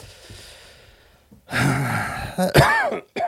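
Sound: coughing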